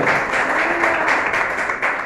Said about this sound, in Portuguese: Se você assim recebe, aplauda o Senhor Jesus.